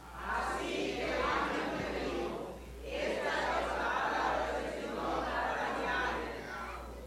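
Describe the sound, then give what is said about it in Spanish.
An audience shouts loudly in unison, reading a scripture verse aloud together on a count of three, a dense wall of many voices in two long sustained bursts separated by a brief pause. “Una vez más, un poco más fuerte. Usted grita muchísimo, yo lo sé.”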